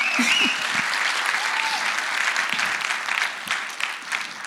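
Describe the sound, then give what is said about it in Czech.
An audience in a hall applauds to welcome the speaker's visiting parents, a dense, steady wash of many hands clapping at an even loudness, with a few faint whistles or cheers rising briefly above it. “Ale jsou v sálu dva velmi speciální lidi a oni už to ví, který chci, abychom speciálně přivítali ještě potleskem a to jsou moji rodiče, kteří jsou tu dnes na návštěvě.”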